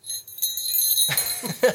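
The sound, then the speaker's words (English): Small bells on a Santa hat jingle in quick, uneven shakes, a bright tinkling that rises briefly and settles, with a faint voice murmuring in the background. “has bells”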